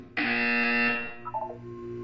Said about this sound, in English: You will hear a buzzer. When you hear the buzzer, look up at the ceiling.